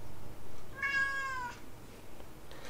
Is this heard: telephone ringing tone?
no